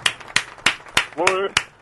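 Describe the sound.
Applause made of about five sharp, evenly spaced claps in a steady rhythm, with a brief voiced exclamation rising between the last claps.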